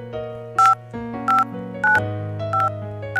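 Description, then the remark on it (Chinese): A telephone number being dialed to call a son: five short, bright two-tone keypad beeps at fairly even intervals, sounding over a soft, sustained musical background with no talking. “你怪他操太多心，却又偷偷的给儿子打电话，要他有空就常回家看看。”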